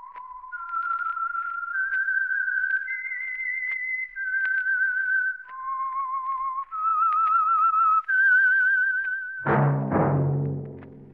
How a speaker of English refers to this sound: That whistle is your signal for the Signal Oil Program the Whistler. I am the Whistler,